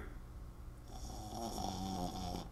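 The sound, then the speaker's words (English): A small dog snores, a raspy, wheezy breath that swells into a louder rattling snore partway through, with no talking over it. “Snore if you agree.”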